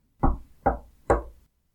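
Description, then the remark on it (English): Three loud, sharp knocks on a wooden door, evenly spaced about half a second apart, each with a short resonant decay, with no voices. “Three knocks fell on the door, loud and sharp.”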